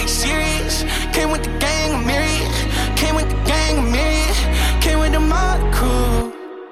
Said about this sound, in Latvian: ir jauns singls